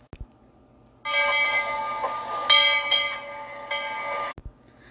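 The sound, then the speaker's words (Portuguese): A streetcar running on rails sounds a bright, sustained ringing bell for about three seconds, loud, framed by a couple of sharp clicks before and after. No one speaks. “Ele ainda via coisas incríveis em sua viagem, por aquele bonde que andava nos trilhos e fazia.”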